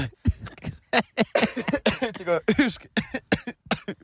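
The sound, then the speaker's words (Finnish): A run of short coughs and throat-clearing noises, coming in quick repeated bursts over a few seconds, mixed with brief voiced sounds. “yskittää.”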